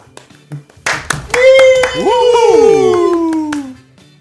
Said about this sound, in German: Kleinen Zwischenapplaus.